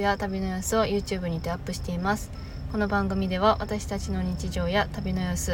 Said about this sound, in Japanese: いつもだと思うんですけど本日も鈴虫と車の音がすみませんがどうぞお許しください